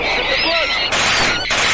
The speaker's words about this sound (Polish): O, bo tu się zaczyna już ten moment, gdzie oni mają broń i po prostu strzelają y, w te ptaki